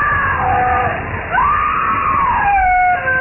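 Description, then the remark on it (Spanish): A woman who is on fire screams frenziedly in a cemetery: long, high-pitched wailing cries that rise and bend in pitch, loud, carrying continuously for about three seconds with no speech. “Se convirtió en tea humana y sus gritos enloquecidos resonaban en el cementerio.”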